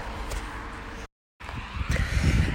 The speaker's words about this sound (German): abgesehen davon, dass ihr jetzt gerade Verkehr hört, das ist aber wirklich nur ein kurzes Stück, ist es recht ruhig.